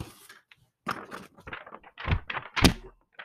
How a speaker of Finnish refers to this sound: Oho, mä löin nyt vähän just saksalipulla niinku, tota, mikkiä. Um, sorry kaikille, jos teen korvat.